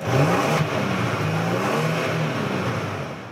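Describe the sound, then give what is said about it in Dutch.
A Kia Stinger GT's V6 twin-turbo engine revs steadily, a deep mid-range growl rising and falling in pitch over a continuous rushing roar, with no one speaking. “Straks een rijimpressie in de Kia Stinger GT met V6 Twin motor”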